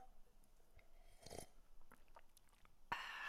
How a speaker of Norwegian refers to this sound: Jeg må bare ta meg en slurk her.